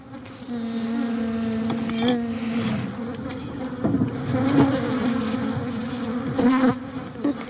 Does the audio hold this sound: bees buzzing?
yes